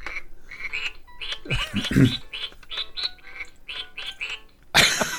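A duck quacking sound effect: a rapid, steady series of short, nasal quacks, fairly loud, with a deeper burst partway through and a harsh rush of noise at the end.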